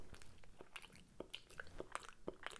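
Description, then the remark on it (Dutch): Chewing with soft, wet lip-smacking clicks, a steady rhythm of mouth noises repeating every fraction of a second. Quiet overall, with no talking. “Misschien hoor je een beetje een smakgeluidje. Dan weet je, ik ben aan het kauwen.”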